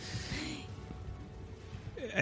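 A quick, sharp, airy intake of breath, followed by a short pause and then a voice beginning to speak at the very end.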